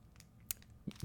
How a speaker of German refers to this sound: er hat eine Tüte in der Hand, er packt jetzt was raus.